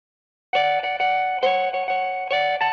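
A Christmas rock song kicks in after a brief silence, with loud, bright electric guitar chords struck in a bouncy rhythm, about six strums over a couple of seconds, and no voices.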